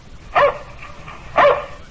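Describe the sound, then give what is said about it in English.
Two sharp barks from Tige, Buster Brown's dog, ring out about a second apart, loud, with a quiet hum underneath and no voices. “That's my dog Tige.”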